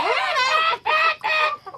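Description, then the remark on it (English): Chickens cackle and squawk loudly: three shrill, strained calls in quick succession, then a brief final cluck. No one is talking. “The chickens hated Zuko. They screeched and cackled when they saw him.”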